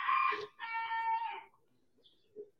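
A rooster crows loudly and close by, a strained two-part call with bright harmonic bands lasting about a second and a half, followed by a few faint clucks.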